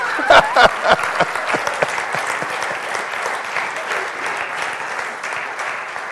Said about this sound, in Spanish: Dale el aplauso a Dios.